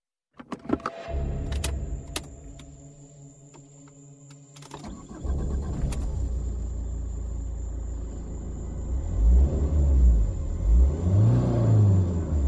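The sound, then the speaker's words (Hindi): A car engine clicks and turns over, idles with a low steady rumble, then revs up in repeated rising and falling swells as the car reverses in a jungle, loud, with no voices. “अरे ये जंगल है कोई जानवर होगा इंसान नहीं मैं गाड़ी बैक करता हूं”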